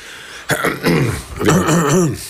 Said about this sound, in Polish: To było chrząknięcie poranne, a nie reakcja na no. pana pytanie.